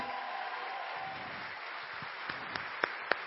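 Steady audience applause, a dense wash of clapping that thins out toward the end into a few sharp, separate claps.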